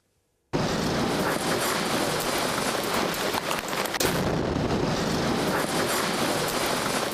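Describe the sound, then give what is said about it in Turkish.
After a brief silence, a sudden loud explosion erupts into a sustained, roaring blast of noise that stays intense for several seconds: a parked gas tanker truck in China blowing up after a gas leak. “Gaz tankeri sızıntı sonrası patladı.”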